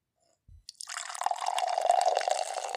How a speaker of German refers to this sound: Dann schenken wir uns wir mal ein. Mach doch mal wieder für die Zuschauer so ein bisschen äh, ja. Ohren, Ohrenkino. Eine Schaumparty. Genau.